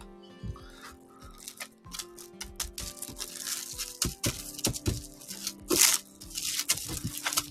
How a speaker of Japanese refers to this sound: 今はちょっとね、この豚肉を、あの、パックで買って、半分ぐらい残ったから、ちょっとそれをね、今からラップにくるんで冷凍にしようと思って、今ちょっと、残りの豚肉を切ってラップにくるもうとしてる最中です。